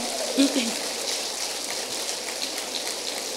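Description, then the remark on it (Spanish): A church audience applauds for the Lord: steady, dense clapping with a hissing, rain-like texture that holds at an even level throughout, with a brief voice rising over it near the start. “Entonces, denle ese aplauso al Señor.”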